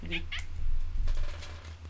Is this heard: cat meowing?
yes